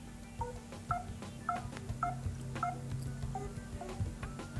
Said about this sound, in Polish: Przy okazji jeszcze taki dźwięk przy przewijaniu listy y, dwoma palcami w górę, w dół jest taki.